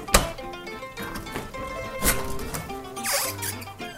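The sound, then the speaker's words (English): A frozen living-room door creaks and groans stiffly as it's forced open, with squeaky drawn-out tones broken by a few sharp thunks and knocks, fairly loud, with no talking. “So we're standing with the door to my living room open right now.”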